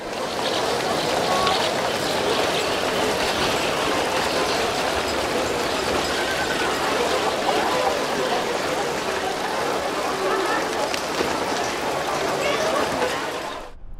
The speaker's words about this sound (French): C'est le marché euh, de plein vent de la Porte, plus le flux de véhicules qui passe de la rue de la Grande Boucherie